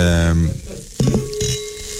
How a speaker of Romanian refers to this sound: ăia chiar deschid sticle.